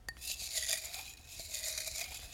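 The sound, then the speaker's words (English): Crumpled paper slips with questions on them rustle and crinkle as they're shaken in a mug, a steady scratchy crackling lasting a couple of seconds with no voices. “We're gonna answer some questions that we pull out of a mug.”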